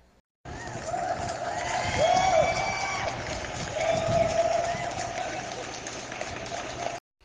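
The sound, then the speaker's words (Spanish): An audience claps for three women guests being introduced, a steady, dense, fairly loud wash of applause with a few cheers and whistles rising through it for several seconds before it stops abruptly. “Un aplauso para las tres, por favor.”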